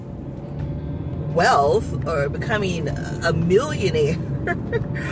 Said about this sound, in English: Now, if you hear noise in the background, that is my car because I'm in my car.